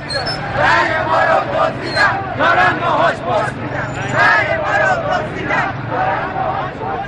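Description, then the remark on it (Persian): A crowd of protesters shouting together in the streets of Iran on Saturday, 30 Khordad, protesting the 1388 (2009) presidential election. A loud, continuous roar of many raised voices with rhythmic surges of chanting and no single voice standing out. “خیابان زیر پای معترضان است امروز شنبه سیام خرداد است و صدای فریادهای معترضان بار دیگر در خیابانهای ایران پیچیده است”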